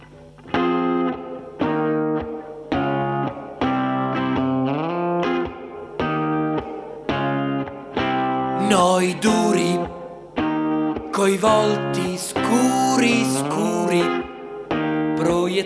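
An Italian band from Sicily plays a cover song, led by a bright, effects-heavy electric guitar with distortion and chorus, chords repeating in a steady pulse before busier, sharper passages build in the second half.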